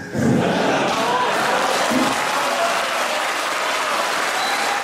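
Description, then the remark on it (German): Sustained applause from an audience of about 800 farmers, hunters and politicians at a panel discussion in Lahn, responding to a Swiss herd-protection expert's statement: a dense steady wash of clapping hands at a constant loud level for several seconds, with faint crowd murmurs mixed in. “Diese Aussage des Schweizer Herdenschutzexperten erhielt reichlich Applaus.”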